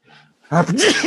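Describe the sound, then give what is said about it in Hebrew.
A single loud sneeze bursts out after a brief soft intake of breath, ending in a voiced, wavering tail. “סליחה. אה, לבריאות.”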